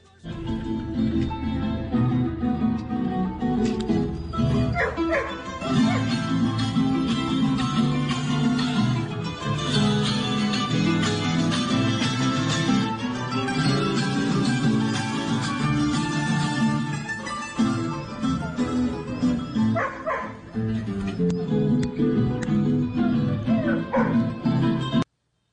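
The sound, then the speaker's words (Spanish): Dogs bark and yip repeatedly during a philharmonic orchestra concert performed for dogs, the barking mixed closely with the sustained music throughout. “No, no, escuche, escuche porque esta es la filarmónica haciéndole el concierto a los perritos y mientras tanto los perritos ladrando.”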